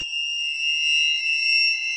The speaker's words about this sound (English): It's tinnitus. A constant ringing in your ear caused by loud machines.